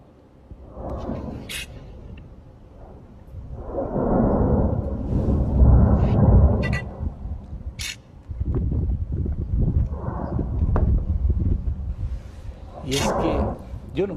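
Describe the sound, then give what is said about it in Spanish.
Deep, rumbling roar of the erupting Popo (Popocatépetl) volcano surging in heavy waves, loud, with occasional sharp cracks and bursts cutting through the low churning noise. “pero miren, es una imagen impactante y además el ruido, el ruido, o sea, el rugir de ese volcán.”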